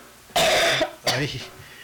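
A person coughs twice in quick succession, two harsh, throaty bursts, the first longer than the second, with no talking around them.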